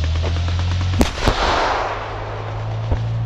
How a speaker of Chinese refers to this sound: 炮声一响，豹二坦克立即退出正面射击的空旷区，重新接收观测资料，作为下一次射击的修正数据。